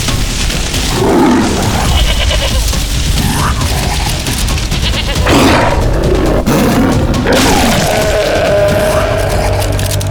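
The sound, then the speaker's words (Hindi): A lion roars loudly as it seizes a goat by the neck, with rough growling bursts over a dense, continuous din, mixed with what sounds like the goat's distressed bleating cries. “वो निराश होकर उठने ही वाला था कि बिजली की तेजी से एक शेर ने बकरी की गर्दन को जकड़ लिया”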